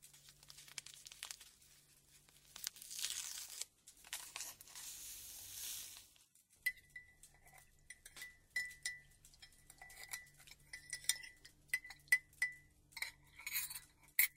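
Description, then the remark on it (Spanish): A soft, grainy rustle of sugar being poured into coffee, then a spoon stirring briskly with rapid, ringing clinks against the cup, with no voices. “Un poco de azúcar.”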